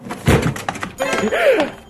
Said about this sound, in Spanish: Hasta que de pronto la puerta se abrió de golpe.